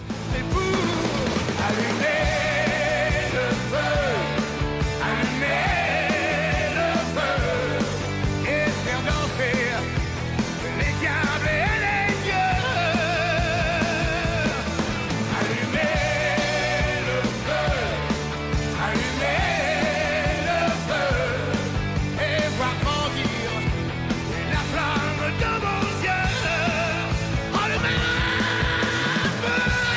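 A loud rock song plays continuously, with driving drums, heavy distorted guitars and a strained, shouted male vocal line over a dense, steady full-band sound.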